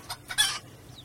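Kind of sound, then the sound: animal, chicken clucking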